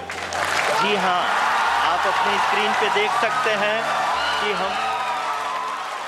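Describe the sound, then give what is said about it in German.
A large crowd at the Indian space agency cheers and applauds steadily after a successful landing, loud dense clapping mixed with shouts and excited voices calling out over it, sustained for several seconds. “Der Jubel in der indischen Raumfahrtbehörde war riesig.”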